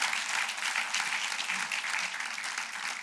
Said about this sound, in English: That's a good place to clap because this place is amazing. Eso es un lugar bueno para aplaudir.